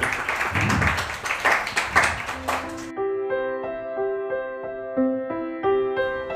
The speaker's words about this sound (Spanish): Un aplauso para Andrés.